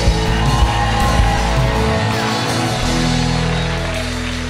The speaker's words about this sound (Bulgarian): Ръкопляскай, ако вярваш, камон!